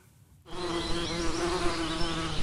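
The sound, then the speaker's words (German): A dense, steady buzzing of many wild bees starts abruptly after a brief quiet moment and continues without pause, loud, like a swarm humming around a nest. “Wilde Bienennester zu finden ist gar nicht so einfach, denn oft nisten sich die Tiere in hohlen Bäumen ein und sind dann von außen kaum noch zu sehen.”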